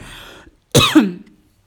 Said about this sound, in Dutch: Zo, ik begin te hoesten.